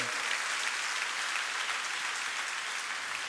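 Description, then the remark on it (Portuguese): A crowd applauds steadily, a dense wash of many hands clapping at an even, sustained level without pause or spoken voices. “Dá uma salva de palmas, isso é maravilhoso, não é?”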